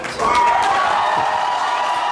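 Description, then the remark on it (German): A crowd in Nordhausen bursts into loud cheering and clapping after a brief quiet moment, as the election result at 20:18 shows Kai Buchmann stays in office, a dense wall of voices and applause that stays steady. “Unter denen, die jubeln, ist Birgit Pommer, die Landtagspräsidentin.”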